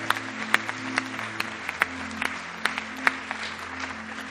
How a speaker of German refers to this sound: Lass uns jetzt mal einen Applaus geben.